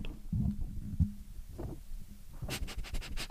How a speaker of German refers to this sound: Oh, ich liebe es, wenn Hunde so, weißt, so ausschnaufen.